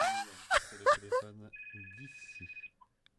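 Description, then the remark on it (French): A high, steady electronic telephone ring sounds for about a second beneath a low groaning voice, followed by a couple of short beeps, fairly quiet. “Ce n'est pas mon téléphone.”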